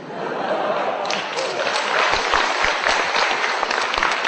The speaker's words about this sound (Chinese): 大家，大家鼓掌，那就通过了啊！